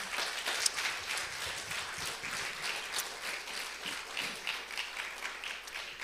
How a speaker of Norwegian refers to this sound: En stor applaus til statistene her.